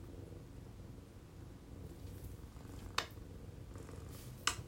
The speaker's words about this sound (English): She's purring. You hear her? Come here. She's purring.